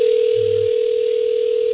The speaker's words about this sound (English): All right, let's see. Can we hear like the ringer? There we go.